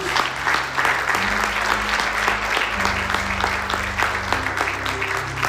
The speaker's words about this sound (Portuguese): Amém. Amém. Aplauda ao Senhor. Obrigado, Deus.